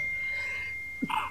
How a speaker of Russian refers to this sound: Будь здоров.